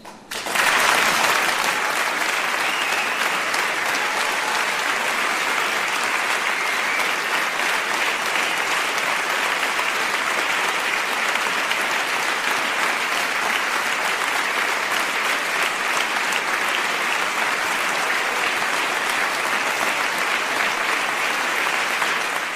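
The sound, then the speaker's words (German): Sustained applause from an audience, a dense, steady wash of many hands clapping at an even loudness for over twenty seconds, with no voices standing out. “Dein Applaus.”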